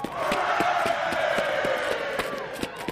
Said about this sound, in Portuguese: vocês escutam um barulho lá atrás, parece que eles encontraram o barco e estão comemorando e gritando agora.